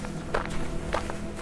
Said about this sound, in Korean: 뒤에서 누군가 걸어오는 소리가 들리는 거예요. 음. 뒤를 돌아보니까 아빠인 거예요?